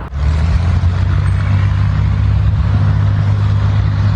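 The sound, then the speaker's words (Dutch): A loud, steady engine drone with strong low harmonics holds throughout: an old propeller aircraft's engine at high power as it climbs away during a practice go-around at Preda Airport. No voices. “Het duurt eventjes voordat je hem echt hoort qua motorgeluid. Dus eerst gaat hij landen, zijn een soort doorstart aan het oefenen op Preda Airport.”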